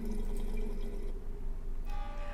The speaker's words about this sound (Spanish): El agua está saliendo así hace una hora aproximadamente. No pienso probarla ni usarla. Alguien que sepa qué puede ser. Sale el agua como azul.